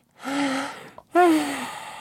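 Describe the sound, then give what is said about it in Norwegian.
A man imitates an exaggerated, fake yawn: two long, breathy, drawn-out vocal sounds with a short pause between them, the second starting louder and trailing off, clear. “Ja, og så begynner han med denne her eh, kunstige gjespinga si.”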